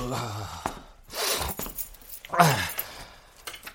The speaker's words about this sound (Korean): 아이고, 왜집 열쇠까지 내 맘대로 안 되냐. 아이! 아, 아, 됐다.